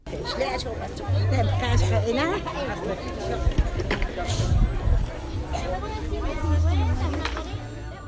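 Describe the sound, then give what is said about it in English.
Busy crowd ambience at the Chichicastenango Sunday market in the Guatemalan highlands: many overlapping voices chattering at once in a steady, dense hubbub, with occasional brief knocks and clatters rising above the murmur. “But there was no way we were leaving the Guatemalan highlands without a visit to the famous Chichicastenango Sunday market.”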